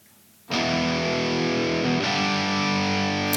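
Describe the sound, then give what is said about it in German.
Two additional overdubbed electric guitar tracks, played solo, kick in abruptly after a brief quiet moment: bright, fizzy and distorted, playing sustained chords with a harsh, treble-heavy edge and a slight change partway through, loud with no talking. “Ihr seht, dass ich hier zwei weitere Gitarren eingespielt habe und äh, die sind deutlich höhenlastig.”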